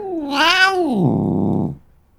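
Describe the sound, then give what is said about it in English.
A single drawn-out meow from Cringer the cat, recorded with a microphone a few inches away, close and loud, rising in pitch then sliding down into a lower, rougher tail before stopping abruptly, with no other sounds around it. “The cat quickly got used to having a microphone a few inches away”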